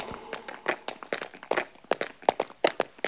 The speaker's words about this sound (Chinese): 一阵脚步声响起，但很快就消失了。